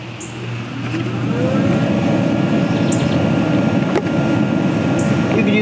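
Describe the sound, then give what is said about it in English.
A compost aerator air pump, set on a timer to come on every half hour and put fresh air into the compost, starts up after a second, its steady droning motor hum swelling and then holding at a constant, fairly loud level, with a faint click partway through. “So every half hour, this comes on, puts fresh air in there.”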